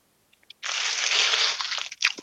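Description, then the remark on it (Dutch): A few small ticks, then a sustained crinkly rustle of a chip bag as a hand reaches in to take a chip, ending with a couple of sharper crackles. No one speaks. “Gaan we zo eentje pakken en er eens op zuigen.”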